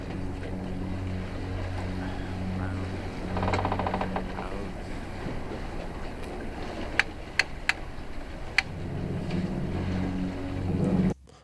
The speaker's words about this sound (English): What we have now is the first clicking sounds of the reel.